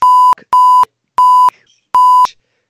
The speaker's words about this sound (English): Uh, uh, I, yes, I'm just hearing bleep definitely after bleep coming from this man's mouth.